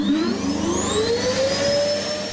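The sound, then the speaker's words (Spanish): A vacuum cleaner motor runs steadily and loudly, its high whine rising in pitch as it spins up, with a continuous rushing roar underneath and no voices. “Total, me despierto porque suena una aspiradora.”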